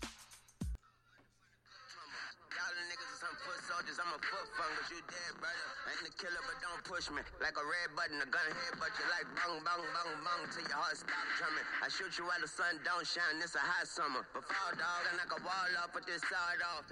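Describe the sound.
After a short quiet moment, a rap track plays loud and continuous, a rapid rhythmic vocal riding over a steady beat, slightly boxy as if through a speaker.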